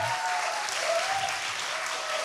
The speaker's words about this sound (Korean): 오늘 오늘 우리 관중분들 수준이 네. 장난이 아니에요. 그러니까요. 박수 이렇게 오래 치시는 분들 처음 봤어요.